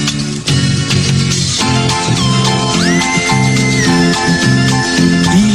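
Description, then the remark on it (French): The theme tune of the Canadian TV series Le Vagabond plays loudly and steadily: an instrumental melody over a bouncing bass line, with a high sustained tone that slides upward midway. No voices are heard. “écoute le générique du Vagabond.”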